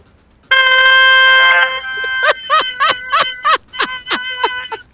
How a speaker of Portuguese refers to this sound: ah, deu uma buzinada aí, vai, deu uma buzinada aí.